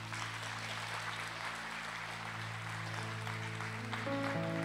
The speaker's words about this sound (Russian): Дай огромные аплодисменты, Господи.